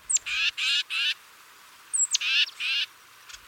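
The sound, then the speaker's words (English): A titmouse gives two clear bursts of calls, each a thin high note followed by three harsh, raspy buzzing notes, with no voices present. “Titmice are loud and vocal birds which could make them particularly easy to follow.”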